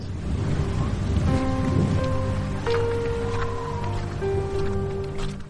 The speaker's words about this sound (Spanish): Era una fría tarde del mes de enero. La lluvia comenzaba a caer débilmente cuando el cementerio de la Almudena me daba la bienvenida y me abría sus puertas.